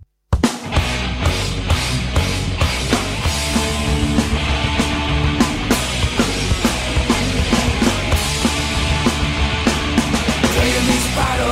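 A loud, dense rock song plays with distorted guitars and pounding, steady drum hits, the full band driving at an even, relentless intensity from start to finish.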